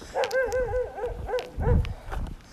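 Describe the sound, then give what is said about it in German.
An off-leash dog barks in a rapid string of short, high-pitched yips and whiny barks, moderately loud over a low rumble, with no one speaking. “von hinten ist der Hund, der hier freiläuft. Ja, der Bellt die Lucy an”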